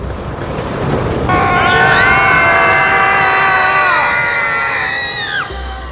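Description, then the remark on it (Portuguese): A crowd of riders screams together as the roller coaster train's brakes release and it rolls into the drop, many high voices rising into a loud, sustained shriek over rumbling noise before cutting off near the end. “Uma vez que a via laranja estava conectada com segurança, os freios do carro soltaram e o trem rolou lentamente em direção à queda. Todos começaram a gritar.”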